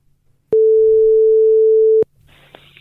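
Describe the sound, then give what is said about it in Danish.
A single steady telephone ringing tone, one long even beep lasting about a second and a half, loud and clear, followed by faint line hiss and low background rumble. “Så jeg ringede til ham igen for at høre, om han er tilfreds med Melonis indsats indtil videre”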